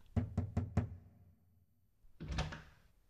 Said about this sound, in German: wagte Passepartout, an die Tür des frisch vermählten Ehepaares zu klopfen